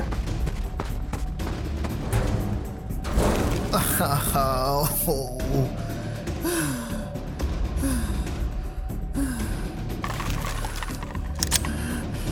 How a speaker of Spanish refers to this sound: ¿Los tiros armados?